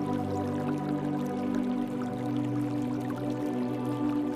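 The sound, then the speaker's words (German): A brook in a forest babbles softly in the distance, a steady, gentle trickle of water that continues without break, with a low sustained droning tone underneath. “In der Ferne hörst du das leise Plätschern eines Baches.”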